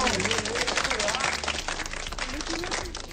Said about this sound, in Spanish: Gracias por apoyarnos con eso, Don JM. Le mandamos su un aplauso.